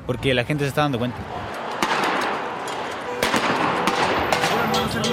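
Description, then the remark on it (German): Two sharp, loud explosive bangs from a tear gas grenade burst out close by at a street protest, over a constant roar of crowd noise, with people shouting briefly at the start. “Dann explodiert ganz in der Nähe wieder eine Tränengasbombe.”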